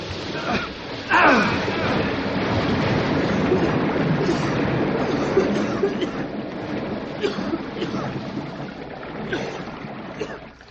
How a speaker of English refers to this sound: If this place is full of water, it'll come rushing out in a big hurry.